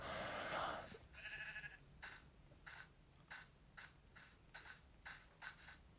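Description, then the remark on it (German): A loud bleat opens, followed by a series of short, evenly spaced bursts of a video game sheep bleating, repeating in a steady rhythm. “Verpiss dich, du Schaf.”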